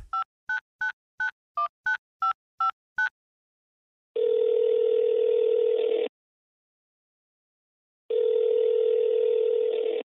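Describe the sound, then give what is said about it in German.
A rapid run of about nine short touch-tone beeps as a telephone number is dialed, followed by two long, steady ringing tones separated by silence, clear with no talking. “ich will jetzt einfach mal die Nummer und hoffe mal, dass der Timo rangeht”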